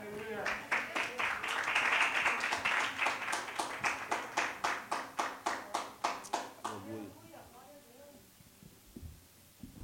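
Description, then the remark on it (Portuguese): A crowd claps steadily in unison as a round of applause for the Lord during prayer, loud at first and then thinning out after several seconds, followed by a voice beginning to speak. “Dê mais uma salva de palmas para o Senhor, amém?”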